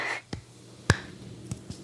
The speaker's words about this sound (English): Golf clap.